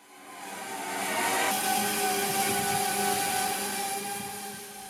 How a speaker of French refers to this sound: C'est un drone de livraison. Il s'approche d'un jardin et fait descendre un câble auquel est accroché le colis.